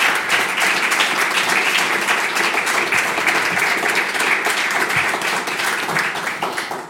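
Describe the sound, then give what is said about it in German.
An audience applauds steadily for about seven seconds, a dense, even wash of many hands clapping at constant loudness, with a faint murmur of voices underneath. “Trotzdem würde ich mal sagen, vielen Dank. Applaus”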